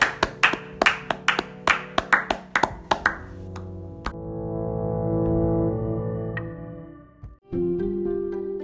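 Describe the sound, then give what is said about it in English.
A short burst of sharp, uneven hand claps for the interviewee at the end of an interview, about a dozen loud smacks over a sustained musical chord, fading out as the music swells and carries on alone. “Let's have a round of applause for Jeremiah Okimasis.”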